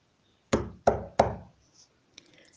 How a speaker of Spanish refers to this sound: Al llegar, golpeó la puerta de la cueva.